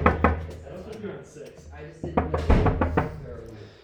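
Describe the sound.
Several sharp knocks rap on a wooden door, a single early tap followed by a quick cluster of raps, close by, with voices talking softly underneath.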